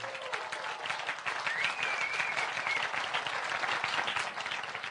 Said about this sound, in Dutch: Willen jullie even een groot applaus geven aan de kinderen?